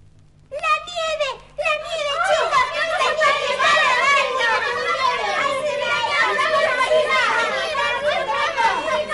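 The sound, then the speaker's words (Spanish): A lively crowd of children playing in the snow, shouting, squealing and calling out over one another, their high voices overlapping continuously, like a noisy playground in full swing. “jugad, hijos míos, jugad, que ahora os reservo otra sorpresa.”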